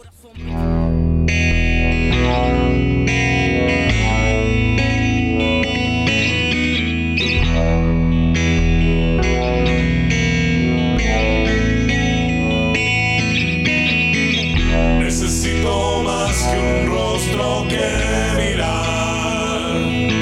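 A loud, dense song plays continuously, with sustained distorted guitars, steady bass and drums, and a brighter, busier burst of sound near the end; no talking over it.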